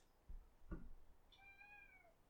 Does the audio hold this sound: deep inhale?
no